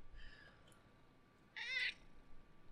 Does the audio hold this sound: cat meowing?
yes